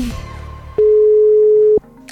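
A telephone ringback tone while calling: one loud, steady, mid-pitched beep lasting about a second, following a fading musical bed and then quiet.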